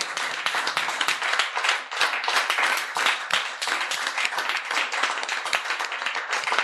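Sustained audience applause at a fifth-anniversary celebration, a dense crackle of many hands clapping at a steady, fairly loud level throughout, with no one speaking over it.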